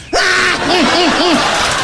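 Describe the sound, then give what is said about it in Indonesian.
A loud, angry shout from a father: a sharp opening cry, then three quick rising-and-falling yells in a row, with no clear words. “Abah berteriak marah.”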